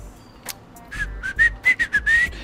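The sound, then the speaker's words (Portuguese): A person makes a breathy, airy whistle imitation: several short whistled notes in a quick, uneven run, fairly loud, with no talking. “fazia assobiando. É, era, era quase um assovio, não é exatamente, mas enfim.”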